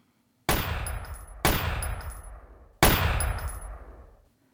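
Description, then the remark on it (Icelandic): Three loud, sharp gunshots from a machine gun, fired by Dipendra into the body of his father, the King of Nepal, unevenly spaced over a few seconds, each cracking out and then trailing off in a long reverberant decay. No voices are heard. “Það var ekki tími til að segja neitt því dýpendra hleyfti af þremur skotum úr vjálpisunni í líkama föðursins.”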